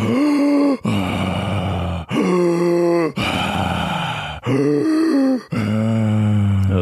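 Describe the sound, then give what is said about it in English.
A person imitates Kussmaul breathing, very fast and deep: about six loud, groaning breaths in steady succession, each separated by a brief pause, with no talking. “this is very fast and deep breathing.”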